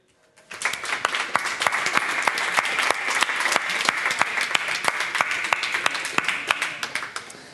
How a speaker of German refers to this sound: Danke vielmals und einen big Applaus.